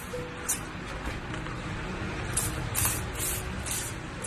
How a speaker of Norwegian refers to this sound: kommer inn med en sprayflaske, og hele posen må desinfiseres før den kan åpnes.